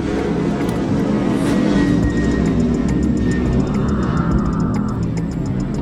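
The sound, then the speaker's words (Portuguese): A steady, loud low rumble of a passing airplane fills the whole stretch, a broad roar that holds its level throughout, with faint ticking clicks scattered on top and no voices. “passa um avião aqui, e toda vez é isso, gravando.”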